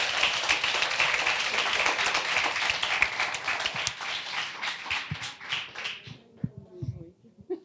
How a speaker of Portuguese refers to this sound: Uma salva de palmas ao Senhor pela vida deles.